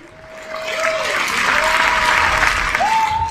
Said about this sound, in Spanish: Eso merece hasta aplausos.